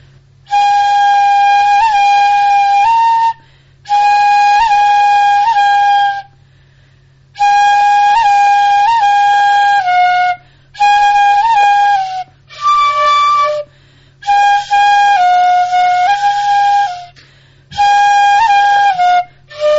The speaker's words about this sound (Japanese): じゃあ、あの、カゴメカゴメを、あの、あのお正月早々暗い歌で締めくくっていきたいと思っていいでしょうか 出ますねいいですか